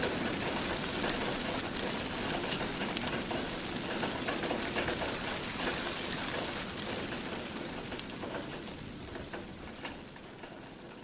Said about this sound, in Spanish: luego cuando llegó la noche el viento norte volvió a zumbar con violencia mientras la lluvia seguía martillando las ventanas y los bajos aleros holandeses